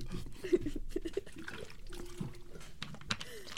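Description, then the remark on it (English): Quiet sipping of water, with a few small wet slurps and gulps clustered early on, then soft liquid movement and swallowing sounds, with no talking. “Take a you sip of water.”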